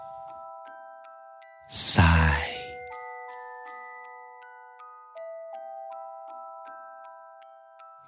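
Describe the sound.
A soft music box plays a slow, tinkling melody of ringing, sustained notes throughout, briefly interrupted near the start by a loud voice speaking a single word.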